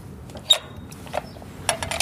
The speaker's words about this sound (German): Auch eine interessante Tür, aber ohne Scheiß. So, gusseiserne Tür.